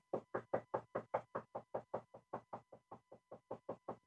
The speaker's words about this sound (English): Banging on my fucking door over and over and over and over and over and over and over and over and over. And over.